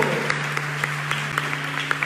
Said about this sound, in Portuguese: Aplausos para o homem do Bom Retiro!